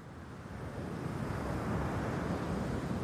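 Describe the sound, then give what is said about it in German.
Steady wind and rolling waves at sea, a dense, continuous rush of surf with low, rumbling gusts that swell slightly louder partway through, with no voices. “Sie sehen, wie ein 15-jähriger Junge auf der Wasseroberfläche von den Wellen herumgeworfen wird.”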